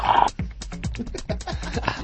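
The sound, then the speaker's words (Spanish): A puppy sniffs in a booth in a quick, steady series of short snuffling breaths, about eight in two seconds, with no talking. “Tenemos un cachorro que está aquí olfateando.”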